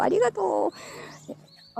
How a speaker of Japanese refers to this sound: 鳥鳴いてるね。